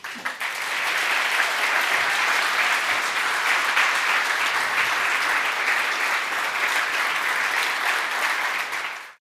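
Sustained applause from a live audience welcoming three guests at a live show recording, a dense, steady wash of many hands clapping at an even loudness for about nine seconds before cutting off abruptly. No voices stand out.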